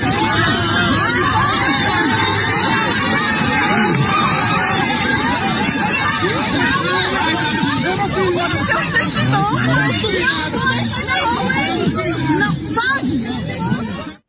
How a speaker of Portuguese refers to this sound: Em um vídeo enviado pela categoria, é possível ver a imobilização truculenta de um homem que é algemado e levado pelos policiais. No áudio a seguir é possível ouvir os gritos de tensão.